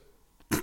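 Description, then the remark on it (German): A single sudden sneeze bursts out after a brief hush, loud and breathy, cutting off sharply. “Gesundheit.”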